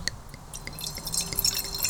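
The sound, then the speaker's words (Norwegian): White Sancerre wine called Intro, from producer Patrice Morieux, being poured into a glass, a steady trickling splash that grows slightly fuller as the glass fills, with no one talking. “Får litt i glasset her”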